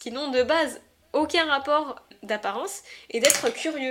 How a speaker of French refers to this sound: Pardon pour ce bruit, euh, j'ai fait tomber mon crayon.